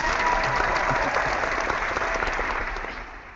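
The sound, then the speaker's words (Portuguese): Steady applause from a group for the runners, a dense crackle of many hands clapping at once that holds strong and then begins to taper off toward the end. “Aplausos aos corredores.”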